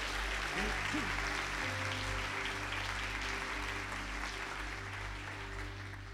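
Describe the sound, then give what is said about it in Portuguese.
An audience at a morning church service claps for the Lord Jesus together in a dense, steady wash of applause that holds for about six seconds and eases only slightly at the end, over a low, sustained tone. “Quantos podem aplaudir a Ele?”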